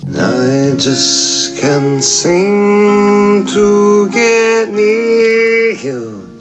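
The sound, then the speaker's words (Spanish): An acoustic song by an artist from Florida, a voice singing long held notes over a steady accompaniment, loud and continuous, with short breathy consonant bursts between phrases. “El nivel también es decente en este caso traemos algo en acústico”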